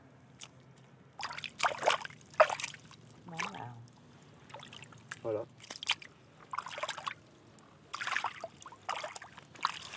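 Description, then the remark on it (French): Irregular squelching, splashing steps through mud and water, fairly loud, with brief pauses between strides and a short spoken word early on. “J'adore marcher dans la boue.”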